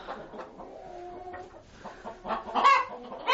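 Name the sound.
rooster and chickens clucking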